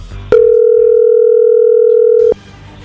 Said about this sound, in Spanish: No haga ruido, ahí se está marcando.